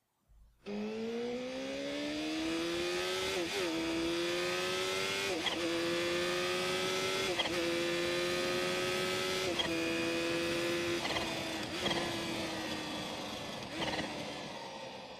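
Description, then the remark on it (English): A Kawasaki H2 motorcycle engine revs loudly, its droning pitch climbing steadily with several brief breaks like quick gear shifts, holding strong for about fifteen seconds with no talking. “Love that engine.”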